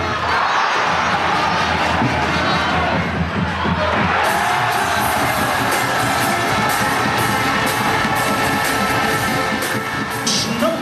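A handball crowd in the Ebert-Hölle arena roars and cheers continuously after a goal, with whoops and shrill shouts rising above a dense, steady wall of noise that stays loud for the whole stretch.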